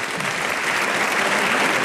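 Steady, dense audience applause for a woman seated in a box of the venue, a loud continuous patter of many hands clapping with no gaps, holding an even level from start to finish.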